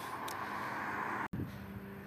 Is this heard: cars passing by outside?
yes